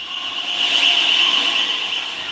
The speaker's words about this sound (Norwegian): På perrongen suser metroen inn, med susen bak spakene.